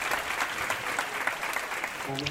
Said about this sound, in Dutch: Daar is een zuster opgestaan. Perfect. Goed zegent uw zuster. Een applaus voor onze zuster.